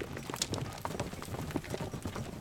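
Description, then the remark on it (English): Hooves pound in a quick, steady clatter, a runaway carriage horse galloping and gaining speed, with dense, repeated impacts over a rumbling, noisy background. “Meanwhile, the horse was gaining speed.”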